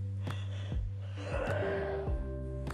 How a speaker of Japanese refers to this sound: あくびで分かっていただけると思いますが、今は深夜2時ぐらいで、仰向けになって録音をしています。